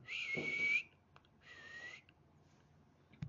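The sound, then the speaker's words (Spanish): Two loud, shrill whistles from a person calling a dog named Laika that had run off, each held for about half a second with a short gap between them, clear, with no talking. “Y Laika no venía, no venía, no venía yo seguía con el silbido fuerte.”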